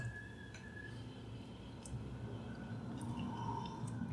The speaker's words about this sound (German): Moment, ich muss mal kurz hier trinken.